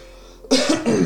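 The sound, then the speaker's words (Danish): A couple of harsh coughs in quick succession, loud and breathy, following a brief quiet moment with no talking. “der bliver hostet.”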